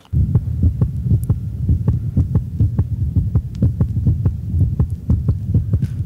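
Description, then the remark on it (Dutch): A dog's heartbeat thumps quickly and steadily, faster than a human's, a rapid run of muffled low beats that is fairly loud, with a soft hum underneath and no voices. “Maar die van een hond eh, gemiddeld klinkt al veel sneller.”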